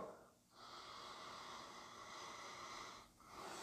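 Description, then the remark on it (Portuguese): Deep, drawn-out breaths taken through the nose while inhaling thyme essential oil spread on the hands, a long noisy inhale separated from the next by brief pauses, with no talking. “Faço algumas respirações profundas.”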